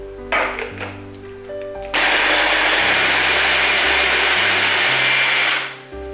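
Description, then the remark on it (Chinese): A blender whirs loudly and steadily for about four seconds, grinding soybean meat chunks that were soaked overnight and squeezed dry, after some brief clattering as it starts; the motor then cuts off abruptly. Background music plays throughout. “捏干后放进搅拌机里面”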